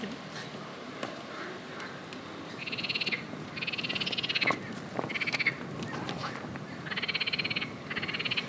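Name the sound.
frogs croaking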